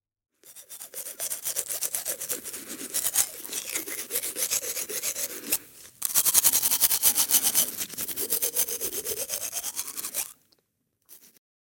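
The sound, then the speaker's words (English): Rapid, steady scrubbing of a toothbrush brushing teeth in a bathroom, fast back-and-forth strokes, raspy and fairly loud, running about ten seconds with a brief pause partway through. No one speaks. “Du bist im Badezimmer.”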